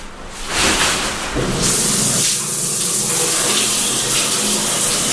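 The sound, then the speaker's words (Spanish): Water runs steadily in a real shower, a loud continuous hiss of spray that swells in the first second and then holds even, with no voices over it. “el célebre barítono Max Pradera canta en bolas, en una ducha verdadera, sin autotune, ni reverb, ni nada de nada.”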